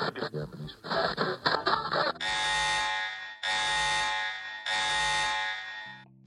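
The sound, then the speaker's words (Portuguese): After a couple of seconds of voices, a loud alarm buzzer blares three times in long, evenly spaced harsh blasts, each lasting over a second, with brief gaps between them. “Toca o alarme.”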